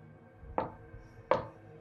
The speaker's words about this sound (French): Arrivé sur le perron, il tambourine de toutes ses forces à la porte pendant une dizaine de secondes, sans prêter attention à la douleur dans ses poings.